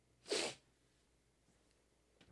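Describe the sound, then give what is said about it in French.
One quick, loud sniff, a sharp hissy intake of air through the nose, followed by near silence and a faint breathy rustle at the very end. No talking. “Ah bah, il faut que je renifle.”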